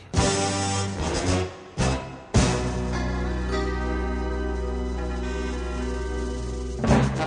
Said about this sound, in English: because he's the only law enforcement officer that has his own theme song when he comes on this program.